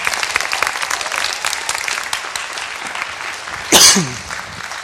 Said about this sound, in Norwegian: Kan ikke vi gi Jesus en skikkelig applaus for han har gitt oss denne gaven her?